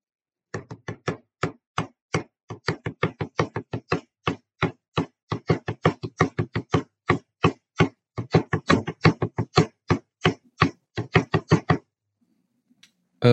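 Dozens of sharp, crisp taps on a flat surface in quick, uneven rhythmic groups, steady and fairly loud for about eleven seconds, then they stop and quiet follows.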